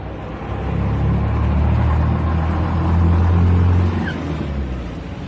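Steady car traffic rumbles around Plaza de Mayo on a cold day of about 9 to 10 degrees, cars making their usual rounds, engines droning and swelling as vehicles roll past in a continuous low stream, with a faint higher whine briefly rising near the end.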